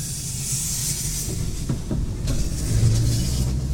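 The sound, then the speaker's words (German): Construction site ambience: a steady, fairly loud low rumble under a broad hiss, with a few faint knocks and clanks around the middle, and no voices. “Ach hier, Baustellenatmosphäre.”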